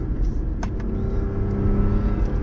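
A Lexus car engine hums steadily while driving, a constant low rumble with faint road noise and a couple of brief clicks, with no one talking.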